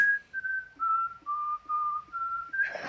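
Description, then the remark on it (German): A person whistles the classical melody 'Freude schöner Götterfunken' (Ode to Joy), clear sustained notes stepping gently up and down in a steady phrase, ending with a brief burst of breathy noise. “Ich habe eine Freude schöner Götterfunken gepfiffen.”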